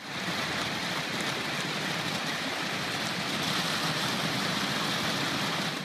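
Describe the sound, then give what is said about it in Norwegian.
A dense, steady rushing clatter of countless black plastic balls rolling down the concrete wall of a California water reservoir, sounding almost like heavy rain, continuous for the whole stretch with no voices. “Tilbake i vannreservoaret blir vannet mer og mer skjult under de svarte ballene som ruller nedover betongveggen.”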